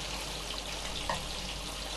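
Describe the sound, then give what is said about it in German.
Small round meatballs sizzle in a pan with more oil than usual, a steady hiss with small pops and crackles scattered through it, no voices. “Was ihr hier brötchen hört, das sind noch die, die Hackbällchen. Und zwar habe ich die klein und rund gemacht und in der Pfanne mit ein bisschen mehr Öl”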